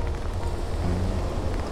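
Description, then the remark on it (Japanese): Steady rain patters on an umbrella overhead, a dense crackle of drops with a low rumbling undertone, continuous throughout with no one speaking. “今日は雨が降っているのでちょっと傘に雨が当たる音がするかもしれないんですが、えー、BGM と思って聞いてください”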